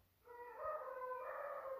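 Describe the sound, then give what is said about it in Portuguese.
A rooster crows in one long, sustained call that starts abruptly and holds steady, fairly loud, with no one talking. “ouvindo o galo cantar.”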